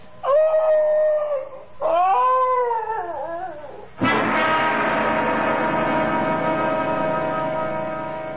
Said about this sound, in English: Now, what's all that? Why, it's the Higley dog. Patsy. Oh, here, Patsy. What's the trouble, doggy?